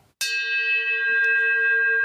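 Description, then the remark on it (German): A single bell is struck once as a segment jingle, a clear, bright ring that hangs and slowly decays with steady overtones. No one speaks over it, with only faint background noise near the end. “Machst du vor die äh, Klingel?”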